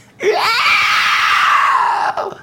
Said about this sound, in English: I can't do a good eagle scream